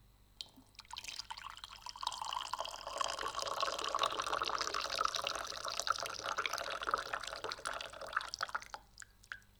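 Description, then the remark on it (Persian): A steady stream of tea pours into a small glass for several seconds, a bright splashing trickle that rises and then tapers off, with no talking. “این شد هورا بعد از مدت ها صدای ریزش چای”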